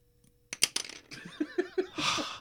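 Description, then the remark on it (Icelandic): A pen dropped from a man's mouth while he is acting a role falls and clatters on a hard surface with a couple of quick, bright clicks. Short bursts of voices follow, then a rush of hissy noise. “misti pennan úr mununum á sér af því að hann var að leika Þormóð sem misti pennan, pennan úr mununum á sér þegar við sjáðum 200.000.”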